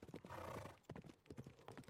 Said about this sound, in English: Hooves churning the frozen earth. A white horse on a white landscape.